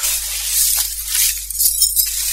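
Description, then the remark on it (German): Window glass shattering and tinkling in a bright, sustained crash lasting a couple of seconds, fairly loud, with scattered clinks of falling shards and no voices. “Alle Fenster waren zerstört.”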